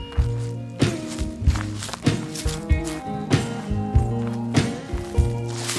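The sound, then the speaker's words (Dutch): Steady footsteps walk through a village at an even pace, each step a distinct soft thud, with sustained low tonal music underneath and no talking. “En daar stappen we nu naartoe, door het dorp, naar Vasilis Papadakis.”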